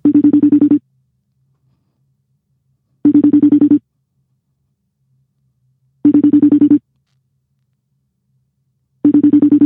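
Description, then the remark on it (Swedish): A phone ringback tone of an outgoing call sounds four times in an even pattern, each short buzzy burst separated by about two seconds of silence, clear and fairly loud with no one speaking. “Ja, det ringer i alla fall.”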